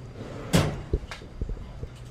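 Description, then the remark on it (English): A small drawer under a desk slides shut after something is put back into it, with one solid wooden thump, followed by a few softer knocks and rattles as it settles, otherwise quiet. “just kind of put that back in a, in a little drawer under a desk.”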